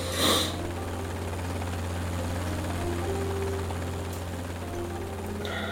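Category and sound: vehicle, helicopter rotor noise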